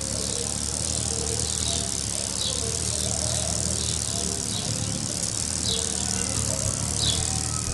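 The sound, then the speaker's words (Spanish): The wings of a Chicamocha hummingbird hum in a steady, continuous buzz, with a few brief, high squeaky chirps popping up every couple of seconds. No one speaks. “Ok, para que tengan una idea, allí les dejo el sonido de un colibrí.”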